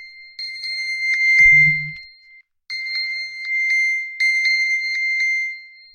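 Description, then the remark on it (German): A phone's locator alert, triggered by a spoken find-phone command, rings loudly as a steady, high electronic tone with pulsing accents while the phone vibrates, briefly interrupted once, with a low buzzing rumble near the start. “Das Telefon summt, vibriert.”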